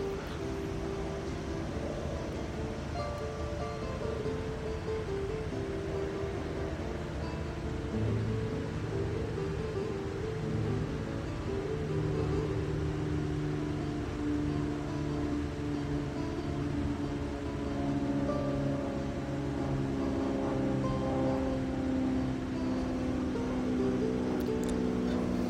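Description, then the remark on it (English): A helicopter drones steadily overhead at Disney World, its low engine rumble holding at an even, fairly loud level throughout with a broad wash of noise and no voices. “Got that ambient sound of the chopper flying overhead.”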